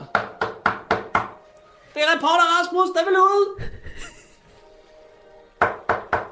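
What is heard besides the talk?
knocking on a door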